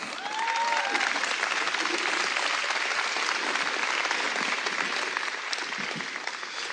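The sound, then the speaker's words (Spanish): An audience at a church service applauds loudly for the Lord, a dense, steady wash of clapping from many hands without pause, with a few faint cheers mixed in near the start. “Uh, dale un aplauso fuerte al Señor.”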